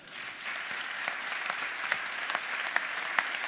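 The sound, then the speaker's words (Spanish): An audience applauding the team of Los Siniestros and the Centro Dramático Galego, with dense, steady clapping from many hands and a few sharper claps standing out above the wash, holding at a fairly even level throughout. “Yo doy las gracias desde aquí al gran equipo de Los Siniestros y al equipazo del Centro Dramático Galego, para los que pido un enorme aplauso.”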